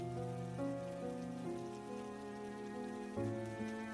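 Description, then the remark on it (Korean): Steady rain patters on a hard surface, a continuous soft hiss, while sustained mellow musical tones hold underneath; no one speaks. “빗방울. 빗방울인지 눈물방울인지 모를 물방울 하나가 내 뺨을 타고 흘러내려왔다.”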